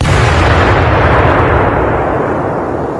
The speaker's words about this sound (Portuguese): um estrondo despertou toda a cidade. Colocada debaixo do assoalho da casa, a bomba da Shindo Remei explodiu exatamente debaixo do quarto onde dormia o filho do Abe, um menino chamado Marcelo.